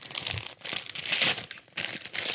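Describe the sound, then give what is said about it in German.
Crinkling gift wrap being pulled open from a present during a live unboxing, a steady bright rustle in several bursts with brief pauses between them, loud and without any talking. “Unboxing. Live hier bei Havidere.”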